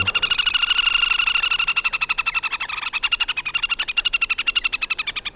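Male and female waterbirds trill together on a lake in a fast, high, rippling chatter that runs unbroken for several seconds, the rapid pulses overlapping and surging slightly, clear with no voices.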